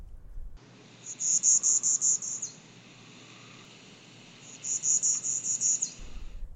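A pine warbler sings two even, rapid trills of repeated high notes, each lasting about a second, separated by a short pause, over a steady background hiss of insects.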